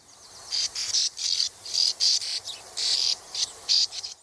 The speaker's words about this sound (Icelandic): Bakkasvalan heitir Sand Martin á ennsku. Hún var líka á stokkseri eins og bógnefurinn og reyndar fleiri skemmtilegir fugglar.